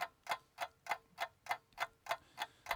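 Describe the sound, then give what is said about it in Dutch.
A clock ticks steadily during a 20-second timed countdown, about three ticks per second, each click sharp and evenly spaced, fairly quiet with no voices over it. “ja, eh, en hij is nu aan het lopen. Kijk, je hoort de, de klok.”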